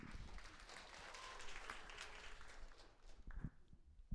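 Applause from an audience, a dense, steady patter of many hands clapping that holds for a few seconds before thinning out and trailing off into scattered claps.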